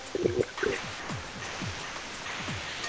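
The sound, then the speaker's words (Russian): A steady hiss from a participant's microphone on a video call fills the background, with a quick series of short, descending blips like dripping repeating roughly every half second at moderate volume. No one speaks. “Очень сильно шипит.”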